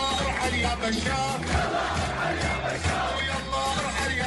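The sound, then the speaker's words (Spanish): A large protest crowd chants a Syrian protest rallying cry in unison, a dense, loud wall of many voices with a steady rhythmic cadence and occasional shouts rising above the mass. “Según los residentes de la zona, las fuerzas del ejército sirio lo habrían arrestado, lo degollaron y le cortaron las cuerdas vocales por haber inventado esta arenga que escuchamos de fondo.”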